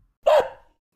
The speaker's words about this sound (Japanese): 日本には犬の日もあります。いつだと思いますかヒントは犬の鳴き声です。